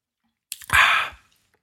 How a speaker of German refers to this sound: Prost. Entschuldigung, ich trank gerade. Ja, ähm. das, das ist sehr laut. und Mir direkt ins Ohr.